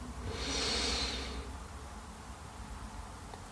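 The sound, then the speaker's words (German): A single deep, airy breath drawn in through the nose as the first deep breath of a guided meditation swells and fades over about a second, fairly soft, followed by quiet stillness with no talking. “Wir nehmen den ersten tiefen Atemzug und atmen ein.”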